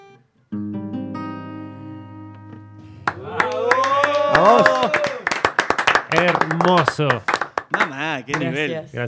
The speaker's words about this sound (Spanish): Gracias a ustedes. Muchas gracias. por la energía y por los chasquidos.